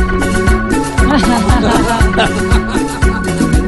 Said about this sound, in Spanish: ¿Y este que viene es de qué corte? Y este corte es el 721 y es en ritmo de salsa nórdica. ¿Salsa nórdica? Sí, sí, sí de repente. Y suena así.